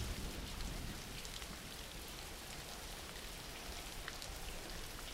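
Steady rain falls throughout as background for a sleep relaxation recording, a dense, even hiss of drops with a soft low rumble underneath, constant in level with no voices.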